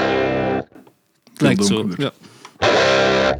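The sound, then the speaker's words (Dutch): Heavily distorted electric guitar rings out in two loud, sustained bursts of chords, first in E standard tuning, then down-tuned to C standard, two steps lower, with a short stretch of a man talking in between. “Heel braafjes, beetje doorperen op C klinkt.”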